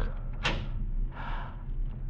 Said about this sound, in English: I moved past him, tiptoed to the door of Bijou's cell, fitted the key in the lock.